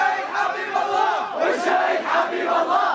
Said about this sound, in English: These protesters, they're mostly young men, and they're holding signs saying no to corruption, and they're screaming, You're all thieves.